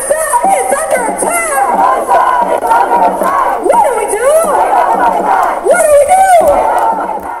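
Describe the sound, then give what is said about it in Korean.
A large outdoor crowd of Palestinian-American protesters in Paterson, New Jersey shouts and chants loudly and continuously that Palestinian resistance is inevitable, voices rising and falling in overlapping rhythmic calls, with a dense babble of many people filling the whole scene. “이들은 시위에 참가해 팔레스타인인들을 수년간 가둬두고 탄압한 결과 보복과 저항이 불가피한 상황이라고 소리쳤습니다.”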